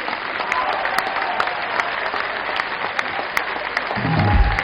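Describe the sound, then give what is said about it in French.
An audience applauds the winning group, the Consistoire du Piémont des Cévennes, chosen by a jury for a film prize, in a steady, dense wash of clapping that holds its level throughout, with a low rumble swelling near the end as the crowd stirs. “Vous pouvez tous les applaudir.”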